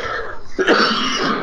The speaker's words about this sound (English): Excuse me, I'm going to cough.